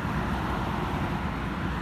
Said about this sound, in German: Das Einzige, was ich höre, ist Straßenlärm.